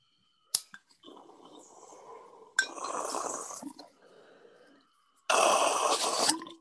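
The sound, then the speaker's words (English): A sharp click, then steady water bubbling in a glass bong as someone takes a hit, swelling louder midway, fading, and ending with a strong, breathy rush of air. No one speaks. “I will take a bonger for you in celebration.”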